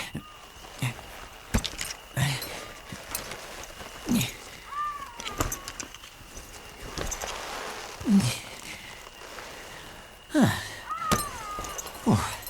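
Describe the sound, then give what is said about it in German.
Someone unbuckles a Manticore costume and its realistic horned mask with practised grips: irregular sharp clicks and dull thumps mixed with fabric rustling, with a few short squeaky creaks in between, at moderate volume and without speech. “Ich schnalle mal das Kostüm ab.”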